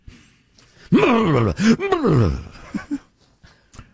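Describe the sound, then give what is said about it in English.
A voice makes loud, exaggerated mock snorting noises, pretending to snort Parmesan cheese, with groaning, gliding vocal sounds and sharp nasal bursts over a couple of seconds, then a few softer sniffs trailing off. “Do a snort the cheese with me.”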